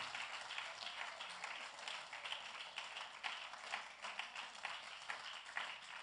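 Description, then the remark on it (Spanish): An audience in a church applauds in a steady, dense patter of many hands clapping, fairly subdued and even in level throughout, with no voices over it. “Si ese aplauso es para mí está bueno, pero si es para Dios tiene artritis.”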